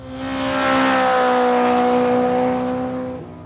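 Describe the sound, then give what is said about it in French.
A heavy truck roars past at speed on the road in front of a house, its loud engine droning as it swells and then fades slightly as it moves away. “la route en face de chez eux parce que les camions y roulent à toute allure et qu'un accident est si vite arrivé.”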